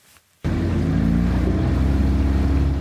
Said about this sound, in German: Gemütlich tuckert Luis Morosini mit seinem Boot rüber von Auki nach Lilisiana auf den Salomonen.